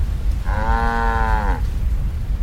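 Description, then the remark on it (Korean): A single drawn-out cow moo, steady, lasting about a second over a low, constant rumble of background noise, with no talking. “소금 창구가 저절로 울면서 소우는 소리를 내고”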